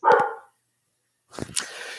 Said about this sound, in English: The uh, hopefully you're not getting too much my dog barking there.